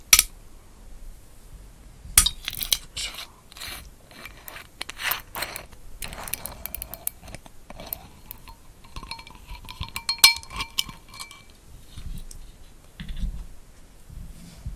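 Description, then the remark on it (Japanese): Sharp crackling clinks and ticks of glass, loud, come in irregular bursts, with a brief tonal ring in the middle and no voices. “ちょっと音が強すぎたねごめんなさいね今のパキパキ音はちょっとピークに行きましたねごめんなさいね”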